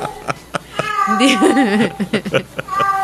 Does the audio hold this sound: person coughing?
no